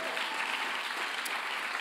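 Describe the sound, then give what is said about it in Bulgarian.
A large church audience claps together during a sermon about Jesus's return, a dense, continuous wash of applause, steady and sustained throughout, with no voices standing out above the clapping. “О, ако ръкопляскаш, ръкопляскаш, като че знаеш, че Твой Исус се връща.”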